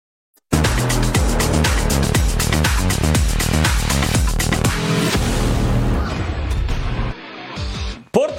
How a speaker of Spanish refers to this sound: Cuando regresemos a Total Sports, ¿cómo rugen los motores